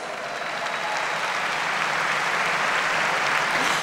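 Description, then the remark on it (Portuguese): A crowd claps for Jesus steadily for several seconds, a dense, even wash of applause that holds at a fairly constant loudness throughout with no voices standing out. “Você pode dar salve de palmas para Jesus?”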